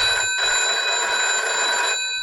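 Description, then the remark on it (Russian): A telephone bell rings loudly and continuously in a bright, metallic trill at 5 a.m. on 4 March 1953, waking a sleeper, briefly pausing before the ring resumes, with no voices present. “4 марта 1953 года в 5 утра его разбудил телефонный звонок.”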